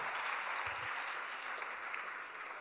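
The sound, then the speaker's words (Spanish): A crowd claps steadily, giving applause to the Lord during a church service, in a dense, continuous wash of applause that holds at an even level throughout, with no voices standing out. “Dele un espíritu, un, un aplauso al Señor.”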